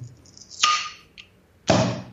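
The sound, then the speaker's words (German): A swing-top bottle of Kellerbier from the Kundmüller brewery in Weiher being opened: a sharp pop with a brief hissy tail, a faint click, then a second loud burst that fades quickly. No one speaks. “plopp. Okay. Hast gehört?”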